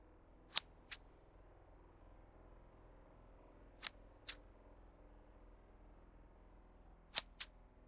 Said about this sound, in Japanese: 鋭いハサミの音だけが聞こえる店内。それは左利きの彼女と私だけの空間だった。